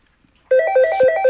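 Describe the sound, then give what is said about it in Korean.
A phone rings loudly after a half-second of near silence, an electronic ringtone of rapid repeating tonal pulses with bright harmonics continuing to the end. “아이 왜라고 전화를 늦게 받아요 잠들었었어요.”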